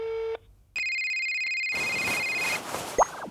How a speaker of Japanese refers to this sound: 仕方なくベルマン巡査はラブール警部に電話をかけました